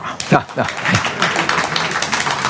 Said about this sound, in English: if you only knew, you'd applaud a lot more than that.